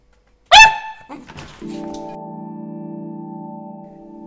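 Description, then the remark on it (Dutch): A single sharp, loud bark from Dennis, a female pet dog, rings out, followed by a few softer knocks and then a steady low droning hum that continues to the end. “Dat was Dennis. Dennis is mijn hond.”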